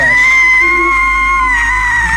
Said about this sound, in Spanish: Habíame adormecido y de pronto me sobresaltaron los gritos de mis hermanas. Miré y las vi en medio del presbiterio abrazadas a mi madre. Gritaban despavoridas.